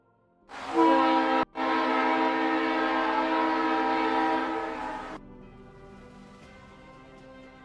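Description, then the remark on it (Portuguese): A loud, sustained train horn blasts for several seconds with a brief break, then cuts off, leaving the rumble of the passing train fading in the background. “Cara, eu jurei que esse trem era tipo o trem do Papa Fett lá.”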